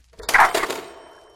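A single ding from an old telephone set dating from the days of old Bell: a sharp metallic strike followed by a brief, shimmering ring that fades out quickly. It is moderately loud, with no voices.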